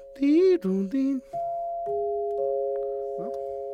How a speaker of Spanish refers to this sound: Para mí son las que se oyen más bonito, ¿no? Bueno. Ahí están. Las Dinner Chimes. Digan, era la marca que los, que los fabricaba.